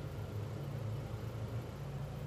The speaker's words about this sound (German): Was machen eigentlich so viele Menschen abends um halb neun bei Meckes? Hier stehen 1000 Autos am Drive-In-Schalter.